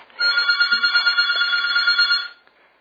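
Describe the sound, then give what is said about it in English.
A telephone rings with a steady electronic trill, one continuous burst of about two seconds, loud, with no voices over it before it cuts off; an incoming listener call to The Space Show radio program. “well, I'll let you have the phone call before I do Linda's questions.”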